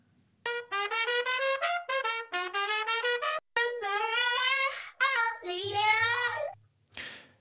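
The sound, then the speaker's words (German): A demo generated by the AI model Audio LDM of trumpet music turning into children's singing: a run of bright, brassy trumpet-like notes in quick rhythmic bursts gives way to wavering, sung tones like children singing, with a low hum under the end before a short noisy burst. “Man sagt da zum Beispiel, spiel mir Trompetenmusik, die in Kindergesang übergeht.”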